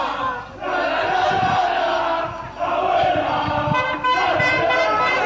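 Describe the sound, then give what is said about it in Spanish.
A large crowd chants a football song, "Vamos con abuela la la la", in unison, loud and continuous, with rhythmic swells and brief dips between phrases, and scattered horns tooting in the background. “Vamos con abuela la la la.”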